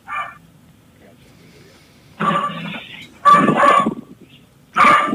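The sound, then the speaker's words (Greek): The speaker's dog Maxoulis barks in three loud, rough bursts spread over a few seconds, with a brief voice heard faintly at the start. “Ο Μαξούλης μου εδώ καυγίζει.”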